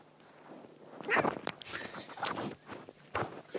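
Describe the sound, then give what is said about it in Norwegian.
A burst of scuffling and quick padding footfalls as a cat, its tail just pulled, scrambles away, with a few sharp rustles and thumps trailing off over a few seconds. “Ah, der løp den av gårde.”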